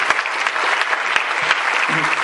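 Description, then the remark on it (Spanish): An audience claps steadily, a dense wash of many hands with sharper individual claps poking through, sustained at a fairly loud level for a couple of seconds. “Bien pueda, un aplauso para los muchachos que se desde el principio.”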